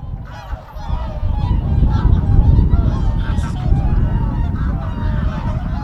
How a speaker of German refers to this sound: So, was ihr hier hört, das sind die Schwäne und Enten am Reykjaviker Rathaus. Die befinden sich dort in einem kleinen Wasserloch, denn der Rest des Sees vorm Rathaus ist zugefroren und da laufen auch Leute drüber.